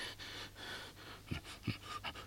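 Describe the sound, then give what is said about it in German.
Heavy, laboured breathing of a female lying restless, tossing and turning and unable to sleep: a series of rough, noisy breaths in a steady rhythm with a few harder gasps, no talking. “Sie atmet mühsam.”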